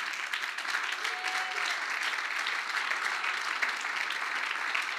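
An audience breaks into sustained applause for the Lord, a dense wash of clapping that holds steady and fairly loud for the full stretch with no pauses.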